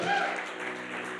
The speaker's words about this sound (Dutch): Hey, gisteren zijn negen mensen gedoopt, kopje ondergegaan, hier in Leiden. zee. applaus, ongelooflijk.